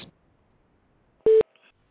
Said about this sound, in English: At the tone, please record your message. When you have finished recording, simply hang up or press pound for further options.